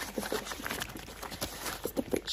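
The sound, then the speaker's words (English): A rubber glove rubs against hair, producing a dense, scratchy rustling with irregular brighter bursts of friction, steady throughout with no voices. “Do you like the sound of it against hair?”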